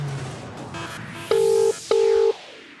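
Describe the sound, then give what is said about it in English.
Two steady, buzzy telephone tones sound in quick succession over a faint background hiss, each lasting under half a second with a short gap between, as a phone call is placed to a guest. “Let's get Thomas on the phone”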